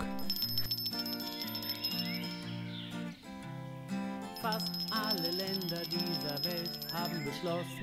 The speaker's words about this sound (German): Plötzlich klingelt es an der Klingelleitung.